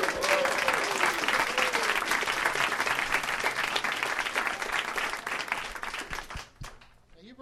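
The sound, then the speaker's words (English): A crowd applauds steadily and loudly for about six seconds, dense clapping with some cheering underneath, then it quickly dies away near the end. “let's hear it for her, everybody.”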